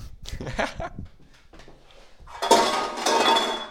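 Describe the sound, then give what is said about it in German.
Dishes and cutlery clink and clatter as someone makes tea, a few sharp knocks at first, then a louder, busier stretch of ringing crockery noise toward the end. “Bro, mein Tee kocht.”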